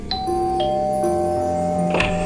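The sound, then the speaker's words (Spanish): A doorbell chimes with several struck, bell-like notes that ring on and overlap, forming a steady sustained tone with no talking. “De repente sonó el timbre.”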